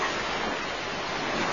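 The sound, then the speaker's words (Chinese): Sea waves make a steady, hissing rush of surf that holds an even level throughout the short stretch, with no distinct breaks or crashes and no voices. “哦，天哪，这是大海，好美呀，比佩罗说的还要美。”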